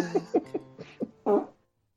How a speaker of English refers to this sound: Unless we're drunk, play farts over it.